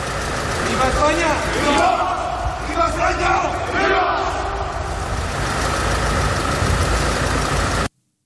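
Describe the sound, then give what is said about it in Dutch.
A crowd shouts and murmurs steadily while the engine of a hearse taking the dictator Franco's remains to his new resting place in Spain idles and pulls away beneath the noise; no distinct door slam stands out. “Dat was te horen bij het dichtdoen en wegrijden van de lijkwagen”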